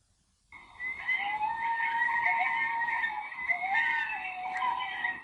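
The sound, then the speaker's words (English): Several coyotes howl together in a continuous, wavering chorus of overlapping high-pitched voices, rising after a brief silence and holding steady and fairly loud with no talking. “Have you ever heard a coyote sing?”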